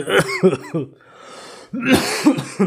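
A loud burst of coughing and throat clearing, several rough hacks in quick succession, a short quiet pause, then another harsh round of coughs and throaty rasps.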